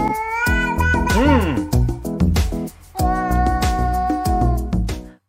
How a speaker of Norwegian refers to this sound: Hvorfor er denne katten flinkere enn meg til å synge? Jeg har betalt penger til en sangpedagog Ja, den katten der er jo en helt fantastisk vokalist.